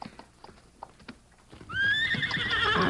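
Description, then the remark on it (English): Hooves clop in a loose, irregular rhythm, then a horse lets out a loud, rising whinny with strong harmonics that holds and wavers for over a second. “You tie horse to tree now.”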